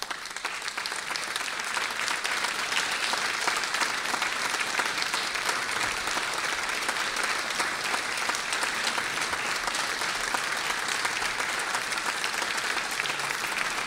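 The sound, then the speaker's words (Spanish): Sustained, steady applause from a large audience in an auditorium, welcoming musicians onto the stage at a recital, a dense crackle of many hands clapping with no voices rising above it. “Invitamos al escenario de nuestro auditorio y los recibimos, por supuesto, con un aplauso”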